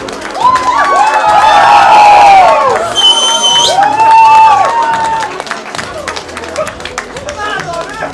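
An audience at a comedy special cheers and claps to welcome the night's headliner, with high whoops and shouts rising in two loud swells over a steady bed of applause, then thinning out toward the end.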